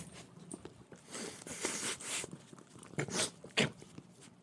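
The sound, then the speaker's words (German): Wet licking and snuffling from a dog, a run of quick moist smacks and sniffs in irregular bursts, fairly quiet with no talking. “Ne, doch, man hört es aber schnaufen ich und lecken.”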